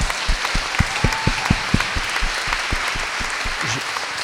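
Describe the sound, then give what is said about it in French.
A crowd applauds steadily for an organizer's work on a stage of a citizens' march, dense overlapping hand claps with several sharper individual claps standing out, sustained at a fairly loud level throughout. “On peut l'applaudir, un énorme travail sur cette étape.”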